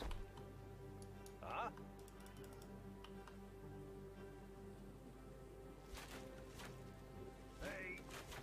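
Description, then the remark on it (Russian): Computer keyboard clacking in scattered bursts of quick keystrokes, clustered toward the end, over a steady low hum with occasional brief electronic chirps. “Блин, у кого из вас так жутко клацает клавиатура?”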